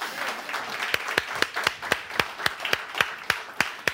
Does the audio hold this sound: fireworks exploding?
no